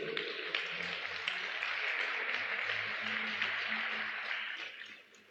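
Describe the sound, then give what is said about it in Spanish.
A crowd claps together in steady, dense applause that holds for several seconds before fading away near the end, with a faint low hum underneath and no talking. “Puede darse un aplauso por ello.”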